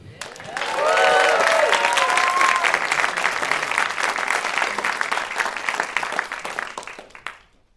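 A large live crowd at an NPR event bursts into loud, sustained applause for comedian Brandi Brown, with a few whoops and cheers rising early on. The clapping stays dense for several seconds before tapering off quickly at the end.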